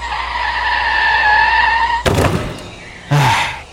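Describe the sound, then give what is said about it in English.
A car's tires screech in a long, steady, high-pitched skid for about two seconds, then a sharp crunching thud hits, followed by a second heavy bang a moment later. “Oh, look, a car.”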